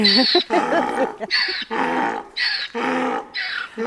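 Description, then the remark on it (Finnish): A donkey brays loudly, a harsh, rhythmic see-sawing call of about six strained honking bursts in quick succession, with no talking. “Toi ääni on muuten aika hurja aase.”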